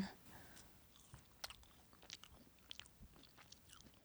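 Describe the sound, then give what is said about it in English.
A first bite and chewing of french fries, with soft crunchy, wet mouth sounds and a few sharp clicks repeating irregularly over a few seconds, no talking. “Okay, I'm going straight for the fries.”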